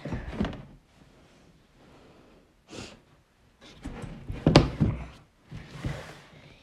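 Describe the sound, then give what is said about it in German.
Several drawers being rummaged through to take something from far at the back: several bursts of sliding, knocking and rattling objects with short quiet pauses between them, and no one talking. “Ich nehme aus jeder, also aus mehreren Schubladen, von ganz hinten something.”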